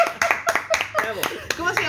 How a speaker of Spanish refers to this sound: O sea, tu mamá tenía razón. La madre tenía, razón, un aplauso para la madre.